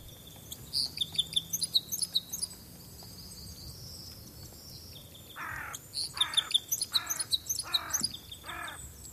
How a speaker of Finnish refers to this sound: Ääniltäänkin lajit muistuttavat valitettavan paljon toisiaan, ja vain kokemuksen pohjalta voi huomata, että isokäpylinnun yhteysäänet ovat metallisempia – ja laulu kuulostaa yksinkertaisemmalta.